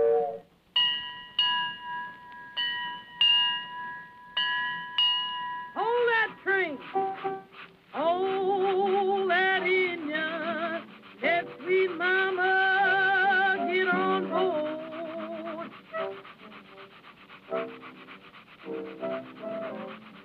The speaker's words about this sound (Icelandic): En það er ekki öll lögin svona æsileg frá 1925 sem er að koma úr höfundarétti við áramót. Það á líka við um þennan rólega blues sem innblásin er af lestaferðum þess samtíma